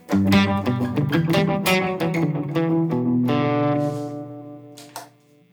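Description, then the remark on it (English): A guitar played through a slapback tape delay, using the 1978 setting, each picked note followed by a quick, tight echo, with dense strummed chords ringing out loudly before fading to a single final note. “So even though this is like a tape delay, just to show you, for example, I can go back to my main page and turn on the 1978, and that's a slap with a tape delay.”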